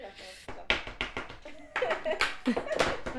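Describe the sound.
Hands drum on a tabletop in a quick, irregular run of sharp taps and smacks, with people talking over the beating.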